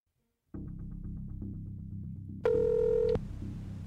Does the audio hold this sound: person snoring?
no